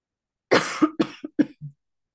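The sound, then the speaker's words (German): A burst of several loud coughs in quick succession, tapering off into a softer throat-clearing sound at the end, with no talking. “Und jetzt spiele ich schnell einen Song wegen meinem Husten.”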